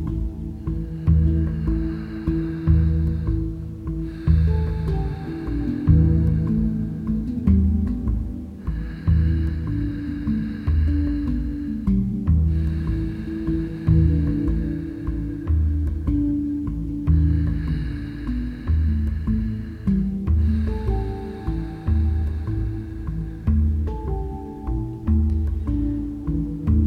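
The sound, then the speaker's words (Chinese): Slow, steady ujjayi (victorious or ocean) breaths made with a relaxed throat, a soft, hissing ocean-like rasp, about three full inhale-exhale cycles, each pass lasting a few seconds over a continuous low humming musical background. “胜利呼吸法又称海洋呼吸法， 在平时可以试着练习放松喉咙，让呼吸声变成像这样。”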